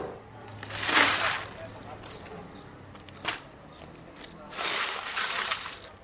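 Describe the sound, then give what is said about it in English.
Broken glass from a clothing store's windows, blown out by an RPG or mortar round that landed next to the shop, being cleaned up: two rustling, crunching bursts of shards scraped and swept together, with a single sharp clink between them, over a low background murmur of voices. “Down the street, Hytham Azu cleans up glass from his clothing store”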